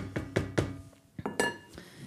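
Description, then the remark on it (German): A plate or bowl clinks and knocks against a counter about six times as someone takes it to serve noodles, sharp ceramic taps with a brief bright ring, irregularly spaced, with no talking. “Jetzt nehme ich mir ein schönes Tellerchen oder eine Schüssel, schnapp mir ein paar Nudeln.”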